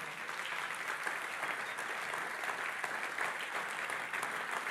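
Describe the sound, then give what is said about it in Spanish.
An audience applauds steadily in the morning, giving applause to Jesus: a dense wash of many hands clapping at an even, sustained level with no pauses and no voices standing out. “Dale un aplauso a Jesús en esta mañana.”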